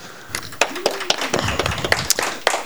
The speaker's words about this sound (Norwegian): Det syns jeg fortjener en liten applaus, folkens.